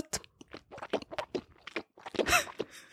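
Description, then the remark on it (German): Loud wet smacking and squelching of someone chewing with an open mouth, food moving around in the mouth, a rapid run of irregular mouth clicks and slurps, likely a person imitating noisy eating. “so hörst du, wenn so der Essspray im Maul bewegt wird, das stört mich.”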